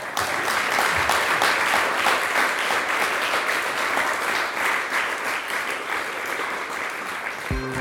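An audience applauds steadily, a dense wash of many hands clapping at a fairly loud, even level that eases slightly toward the end, with no voices.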